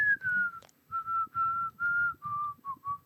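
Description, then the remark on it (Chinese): A person whistles a short run of clear notes: the first slides downward, then about six steady, similar-pitched notes follow, the last few shorter, over a low rumbling background. “你不喜欢听吹口哨的声音哦？”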